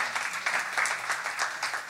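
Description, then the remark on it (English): An audience claps together in a steady, dense wash of many hands, the applause holding at an even, moderate loudness throughout with no voices standing out. “Glad you're clapping because it's going to be a sacrifice.”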